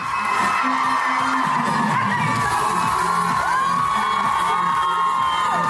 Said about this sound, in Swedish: folkets jubel, gumman.